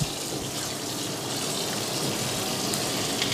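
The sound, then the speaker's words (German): Water is poured into a hot frying pan of meat to deglaze it for a sauce, making a loud, steady hissing sizzle that stays constant for a few seconds, with no one speaking. “Also die Fleischpfanne ablöschen und mit ein bisschen Wasser und eine zur Soße.”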